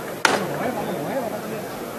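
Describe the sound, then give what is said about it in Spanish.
A single sharp metallic knock from the llamador, a metal knocker on a procession float, rings out once near the start, then a man's voice talks over a murmuring crowd. “Mira, mira, va a sonar el llamador.”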